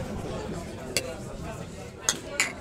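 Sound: drinking glasses clinking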